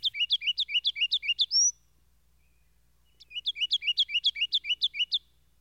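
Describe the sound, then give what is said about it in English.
A kinglet sings two bursts of rapid, high, tinkling notes, each a quick run of about a dozen bright chips, separated by a pause of silence, clear with no talking. “The song of the kinglet is the only characteristic that allies it to the wrens.”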